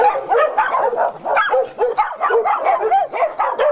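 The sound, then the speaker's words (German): Several neighbourhood dogs bark and yip continuously, overlapping one another in a dense, agitated chorus with a few whimpering tones, fairly loud and sustained throughout. “Jetzt wäre es natürlich schön, wenn die Hunde in meiner Nachbarschaft sich ein wenig erkenntlich zeigen könnten und das Bellen einstellen, während ich diesen Podcast”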